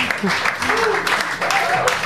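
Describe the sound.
A burst of steady applause, many hands clapping in a dense, continuous patter for about two seconds, with voices and a bit of laughter mixed in over it.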